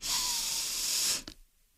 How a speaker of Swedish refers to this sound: Så om inandningen lät så här,